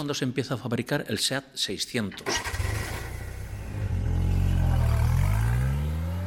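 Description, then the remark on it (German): A man speaks briefly, then the small engine of a Seat 600 car, a Spanish-built licensed version of the Fiat 600, starts up and revs, its droning pitch climbing steadily louder as the car pulls away and accelerates. “Das Wichtigste ist vielleicht, dass im gleichen Jahr, in dem der Toro de Osborne an die Straßen kommt, der Seat 600 auf die Straßen kommt.”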